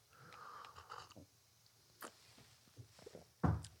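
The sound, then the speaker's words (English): A sip of hot coffee: a breathy slurp drawn in over about a second, a few small mouth and cup clicks, then a louder gulp or exhale at the end. “I need a second sip.”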